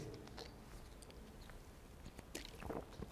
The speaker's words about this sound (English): That was just a chance for me to take a sip.